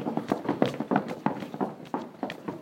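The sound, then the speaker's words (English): Feet stomping on a floor in a quick, uneven rhythm during a seated exercise with hands on a chair, a steady series of dull thuds with no one talking. “Unwind the legs and stomp out your feet.”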